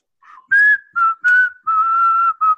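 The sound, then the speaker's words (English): A person whistles a short tune with their lips, a few quick bright notes followed by a longer held tone, clear with no talking. “Can you do a regular whistle, uh, …? Can I? I am basically the best whistler you've ever met in your life.”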